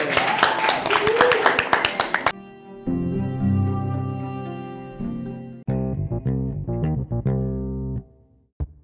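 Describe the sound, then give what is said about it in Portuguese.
Loud audience applause for a group that has just presented, a dense crackle of many hands clapping, lasts about two seconds and cuts off abruptly, followed by a bright synthesized musical jingle with steady sustained tones. “Palmas para eles!”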